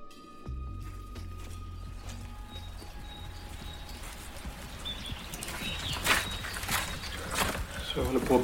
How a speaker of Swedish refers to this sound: Våren 2022. Det regnar.